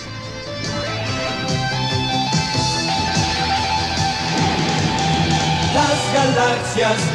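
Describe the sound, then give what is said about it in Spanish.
The opening theme song of the animated series Halcones Galácticos plays loud, full-band music with bright sustained tones and driving rhythm that fills the whole stretch without pause. “Entonces, bueno, pues les voy a poner aquí, o a lo mejor ya lo están escuchando, gracias a la producción, eh, el intro de los Halcones Galácticos.”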